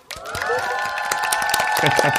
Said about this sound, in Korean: 그동안 고생들 하셨습니다. 다들 너무 애써주셨어요. 자, 우리 서로에게 박수 한번 보낼까요?